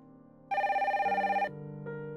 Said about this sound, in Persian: شنبه صبح تلفن بیدارم کرد به نظر می رسید قبل از اینکه من توجهم بهش جلب شده باشه و بیدارشم کلی زنگ خورده سعی کردم برش دارم ولی دستم بهش خورد و افتاد رو زمین